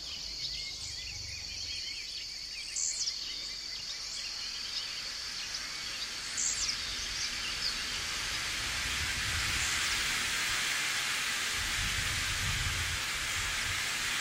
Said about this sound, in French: Une fois arrivé à Saül, on comprend vite ce que ça veut dire. Surtout quand le rideau de pluie tombe sur les grands arbres qui enserrent ce village émaillé de maisons créoles en bois coloré et aux toit de tôle.